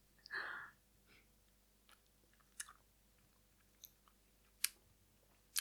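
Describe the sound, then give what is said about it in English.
A brief slurping sip of a salt-rimmed tequila margarita with lime, followed by quiet moments broken by a few sharp little crunchy mouth clicks and smacks. No one speaks. “so I'm I'm a bit scared, but maybe the salt and the lime will give a bit of depth of flavor and just not pure alcohol. So let's try.”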